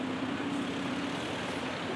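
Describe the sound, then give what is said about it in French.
A steady, loud diesel engine of a rear-engined Eliès city bus in Marseille drones as it turns tight corners, with a low hum running throughout and broad road noise around it, unbroken for the whole stretch with no voices. “Vous l'entendez là Il s'agit d'un bus de la marque Eliès avec le moteur à l'arrière.”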